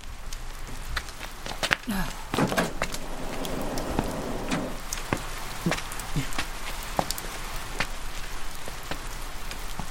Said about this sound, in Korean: 도서관 야외 휴게실로 나오니 갑자기 소나기가 내리기 시작했다.